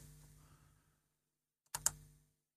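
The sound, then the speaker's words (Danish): Two quick, sharp key clicks on a computer keyboard after a second of quiet low hum, then fade out with no talking. “så står der også en tastatur lige foran dig, som du bare kan bruge ah, til at”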